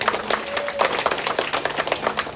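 warm audience applause

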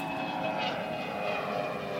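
airplane engine flying overhead

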